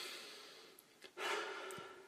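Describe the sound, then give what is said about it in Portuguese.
Short, angry huffing breaths, fairly loud: a couple of quick puffs of air followed by a longer, forceful exhale, with no talking. “E é aquela, é aquela respiração mais curtinha, Exato.”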